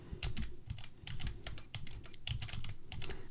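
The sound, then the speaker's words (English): Braille display cells refreshing instantly as a test file is opened, in a dense, rapid burst of small mechanical clicks and pin rattles, fairly loud, continuing steadily for a few seconds with no voices. “So I'm just going to go into one of my test files and you can hear about how loud the refresh rate is on this thing and it refreshes instantly.”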